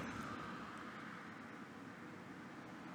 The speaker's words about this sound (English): As you can see, the window is open. You can hear the cars driving by and stuff like that.